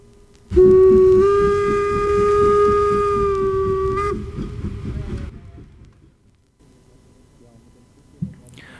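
A loud steam train whistle blasts in one long, steady tone for about three and a half seconds over the rhythmic chugging of the locomotive, then the train noise fades out.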